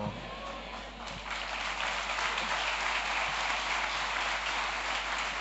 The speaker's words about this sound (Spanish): Ese es lo más fuerte, ese aplauso.